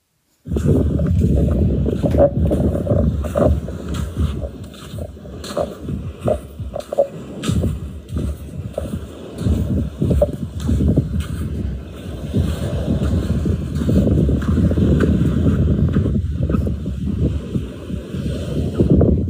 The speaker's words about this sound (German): Der Tag neigt sich langsam dem Ende zu und du läufst nochmal, um den Tag schön auszuklingen am Strand und hörst das Rascheln ähm, des Sandes und der Wind weht sanft um dich.